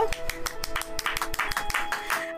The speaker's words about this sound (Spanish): Y antes de pasar a otros temas, todos vamos a darle un aplauso